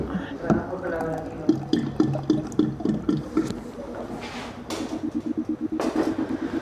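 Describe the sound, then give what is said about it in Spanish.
Water pours into a ferment in short gurgling bursts, fairly loud, with some splashing. A person talks quietly underneath. “Creo que le falta un poquito de agua.”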